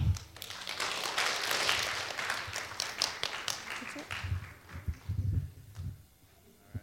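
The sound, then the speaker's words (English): A crowd of children at a church does the Awana clap, bursting into dense, fairly loud clapping and applause that holds for a few seconds, then thins into scattered claps and low thumps before fading out. “If everybody knows how to do the Awana clap, if you could do that in two seconds and give yourself a big round of applause.”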